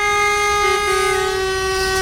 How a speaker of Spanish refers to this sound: ya lo están oyendo, centenares de camiones del sector del transporte de alimentación animal y de biomasa han llevado a cabo una marcha lenta desde Alcosa hasta el Prado de San Sebastián, pasando por Paseo Colón y la isla de la Cartuja.